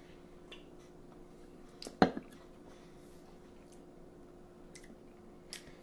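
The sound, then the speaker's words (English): A quiet first sip of a wine-based spritzer from a can: one short, wet slurp with a smacking mouth sound near the middle, a few faint clicks around it, and no talking. “the mouth noises you made with it were are a bad sign.”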